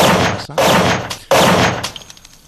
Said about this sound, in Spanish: Cuatro. Eh, han sonado tres. Fueron cinco disparos. Eh, dos en la espalda, dos en el hombro, uno que se perdió.